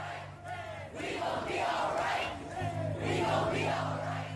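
A large protest crowd chants a song together outdoors, many voices swelling and falling in rhythmic waves, loud and sustained, with a steady low hum running underneath.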